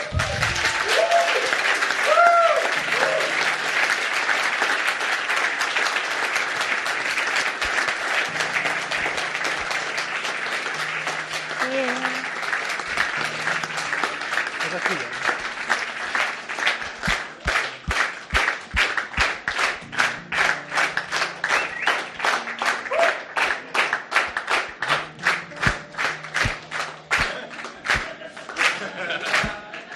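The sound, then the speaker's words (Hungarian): A crowd breaks into loud, sustained applause with a few cheers at the start, clapping after a prayer ending in Amen to give thanks for the work done; after about fifteen seconds the clapping settles into a steady, rhythmic beat in unison. “Adunk egy nagy tapsot neki?”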